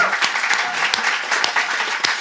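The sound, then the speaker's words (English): Dense, steady applause from an audience fills the whole moment, many hands clapping at once in a bright, continuous wash with a few sharper individual claps standing out. “Big round of applause”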